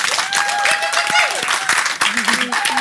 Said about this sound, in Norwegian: Kan dere bli med på en varm applaus til de fantastiske talentene?